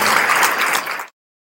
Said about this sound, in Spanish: Muchas gracias y les pido un enorme aplauso para este doctor.